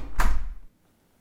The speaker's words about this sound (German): Die Rose spürt, dass sie gerade muss brüllen und macht schnell ihre Zimmertür zu.